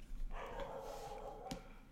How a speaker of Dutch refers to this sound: En dat is eh, ons hondje op de achtergrond, die heeft dat er bezoek is.